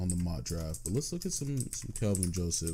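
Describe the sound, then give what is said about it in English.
Soft, rapid clicking of typing on a computer keyboard runs steadily in the background while a man talks continuously over it, the keystrokes light but partly masked by his voice. “And if you guys hear typing in the background, I'm kind of sorry about that. It's my keyboard.”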